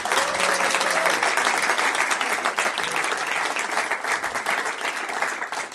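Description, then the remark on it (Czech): Sustained applause from a crowd, a dense steady wash of many hands clapping at once, loud and even throughout with faint voices mixed in. “Ale pojďme mi zatleskat, třeba to uslyšej někam.”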